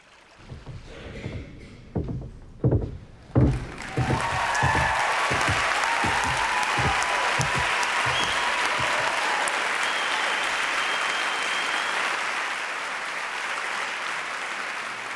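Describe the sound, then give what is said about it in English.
A few scattered heavy claps give way to a full theatre audience applauding, a dense, steady wash of clapping that holds strong for several seconds before easing slightly at the end. “All right, a theatre.”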